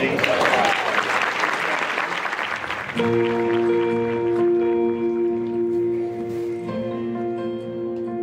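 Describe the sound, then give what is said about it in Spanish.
A large audience at a church worship service in Atlanta claps loudly and steadily for a few seconds, then sustained musical chords rise beneath the fading applause and crowd murmur. “Bueno, esto es una grabación de una misa em, en, Atlanta.”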